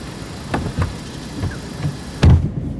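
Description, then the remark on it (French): Inside a 34-year-old man's moving car in broad daylight: a steady low engine and road rumble fills the cabin, broken by a few dull knocks and bumps, with one louder thud near the end. No one speaks. “Il y en a un seul qui a fini par accepter, c'est un homme gay de 34 ans qui m'a fait monter dans sa voiture en plein jour.”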